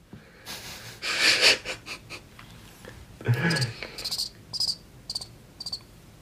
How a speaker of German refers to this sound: Da kannst du jetzt so Grillenzirpen äh, einblenden.